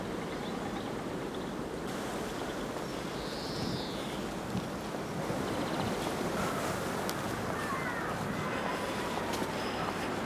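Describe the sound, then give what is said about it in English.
A steady, continuous roar of wind rushing through trees, heard from a sheltered spot, fills the whole stretch, loud and unbroken, with a few faint bird chirps briefly rising above it. “We've got a sheltered spot here you can hear the wind roaring in the trees.”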